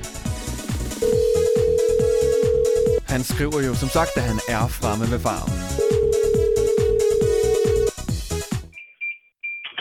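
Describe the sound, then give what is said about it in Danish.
Two long, steady ringback tones of an outgoing phone call to a person at a Dutch pear farm, each about two seconds with a pause between, sound over busy music while a man talks. “så ringer vi op til Adrians meget lange romanske nummer”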